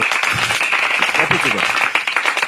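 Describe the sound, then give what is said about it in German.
Steady hand clapping, dense applause filling the whole moment, with voices talking and calling out over the noise. “Ja, ähm, Applaus wir, dafür.”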